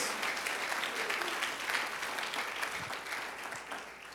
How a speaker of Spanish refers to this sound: Celebramos los logros de los demás. Amén. Aplaude.